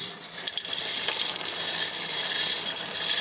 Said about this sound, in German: Schönes Gerät. Was ist jetzt genau der Zweck davon? Also, dass man zu Hause damit dann die Ziehung der Lottozahlen nachspielen kann?